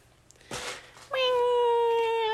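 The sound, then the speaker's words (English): A human voice lets out a drawn-out, cat-like meow, a single sustained tonal wail lasting over a second, preceded by a brief breathy noise, loud. “Why the fuck did I sound like a cat?”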